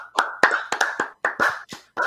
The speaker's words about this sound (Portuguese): Salva de palmas pra, pra rola de Ney